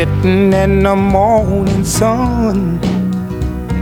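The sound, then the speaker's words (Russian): The original recording of a vintage soul song plays loud and full, a smooth sung voice gliding over a steady band with bass, guitar and horns, the music continuous throughout with no one talking. “Вот как звучал оригинал.”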